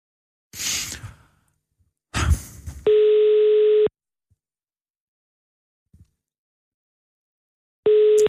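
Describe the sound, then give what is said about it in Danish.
A telephone ringback tone during an outgoing call placed from a Radio 24/7 radio show: steady, buzzy one-second beeps separated by a long pause of several seconds. A couple of breathy sighs come just before the first beep. “Øhm, jeg ringer, fordi jeg laver et lille element øh, her på, på radioen, hvor vi ringer rundt til folk, der er fyldt 50 år,”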